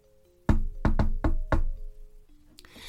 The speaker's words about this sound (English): she wanted to know who lived behind the round door, and so she knocked.